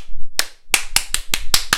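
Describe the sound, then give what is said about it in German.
Six sharp hand claps ring out loud: one alone, then a quick run of five evenly spaced claps, with no talking in between. “Und ich habe gerade geklatscht.”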